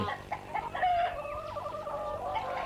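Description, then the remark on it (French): Several hens cluck and chatter in a steady, overlapping stream as they peck in a kitchen, some even on the table, with short brighter calls standing out now and then. No one speaks. “Une table, des chaises, des poules qui picorent et même sur la table.”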